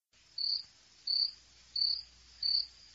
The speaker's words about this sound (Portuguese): mas os grilos estão sempre aqui.